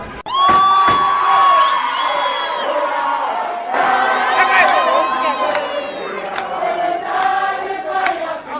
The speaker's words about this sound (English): The EFF was in full force outside the court. A large crowd picketed outside the court carrying banners and singing throughout the day.